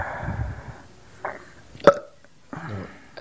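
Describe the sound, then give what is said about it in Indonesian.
A few short throaty burps sound up close with brief gaps between them, ending in a quick sharp gulp-like click. No one speaks. “kenapa bersendawa di uh, iya iya nggak apa-apa nggak apa-apa nggak apa-apa kan ya, iya, kan saya harus sendawa itu iya.”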